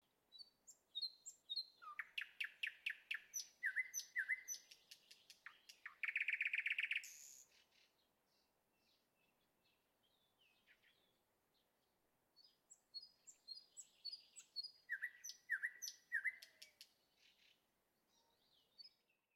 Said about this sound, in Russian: я сегодня гулял по Перми и увидел, что так много синиц поет. На мой взгляд, это было так здорово, так прекрасно. В какой-то степени это как раз-таки и олицетворяло начало весны для меня.